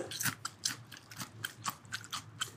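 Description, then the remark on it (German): Crunchy biting and chewing on a piece of raw ginger, roughly six or seven wet, crackly bites in a steady rhythm, with no talking. “Du beißt jetzt bitte auf diesem Stück Ingwer rum und lässt dich schön entgiften.”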